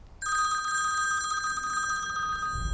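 A telephone rings with an incoming call made from the caller's mother's phone, a steady, trilling electronic bell tone that starts abruptly and continues without pause, clear with no one speaking.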